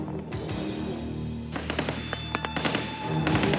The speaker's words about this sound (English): Hidden men opened fire.